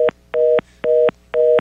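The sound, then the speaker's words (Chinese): A telephone busy tone after a caller hung up on the host of a call-in show: four even, steady mid-pitched beeps, each about a quarter second long with equal gaps, fairly loud and with no voices. “怎么变成是你挂我电话？”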